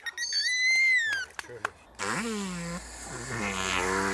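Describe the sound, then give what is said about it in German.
Dolphin sounds: a few high, rising and falling whistles and sharp clicks, then loud, buzzy, sputtering noises that sound a lot like farts, continuous. The noises are made in the dolphin's blowhole, and dolphins use them to communicate with each other. “Und wie verrückt, dass sich die Delfine damit untereinander verständigen.”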